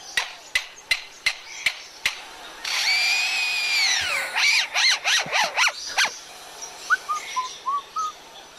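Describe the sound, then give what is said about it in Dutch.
A lyrebird mimics construction-site sounds of hammering, sawing and machines: a run of sharp hammer-like knocks, a long whining saw-like buzz, rapid rising mechanical chirps, then a few soft whistles, clear, with no talking. “Een fluitende bouwvakker was dat.”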